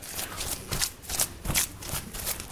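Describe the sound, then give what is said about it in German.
A mason's feet stamp wet lime-clay mortar, a brownish mix of burnt lime and water, into a layer on a church floor, a steady run of soft, squelching slaps about three per second, each with a wet splattering hiss, with no voices. “Ja, das mal sehr grob auftragen und dann aber nachher anschließend mit den Füßen feststampfen.”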